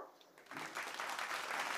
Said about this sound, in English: Not sure why that line rendered so much applause. I'm a Disney character. Everything I say is applauded.